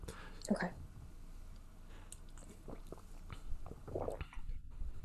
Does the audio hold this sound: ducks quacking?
no